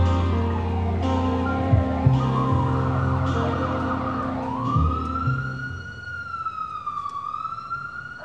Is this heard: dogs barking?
no